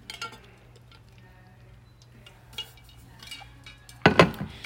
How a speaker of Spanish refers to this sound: Voy a tomar agua.